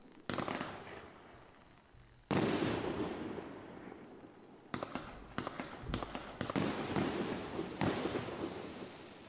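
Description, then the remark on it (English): A consumer firework cake called Spider Nebula goes off as a finale in a dense, rapid barrage of loud booms and crackling bursts. The shots overlap almost continuously, with one brief lull before the volley resumes even stronger. “It's a nice finale.”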